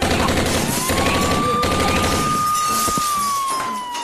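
Police fire a loud, dense volley of gunshots that crackles almost continuously for four seconds, while a thin, steady whistling tone rises and holds above the barrage before easing down at the end.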